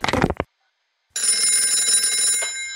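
A telephone bell rings loud in a sustained, rattling burst that follows a short sound and a brief silence. No one speaks.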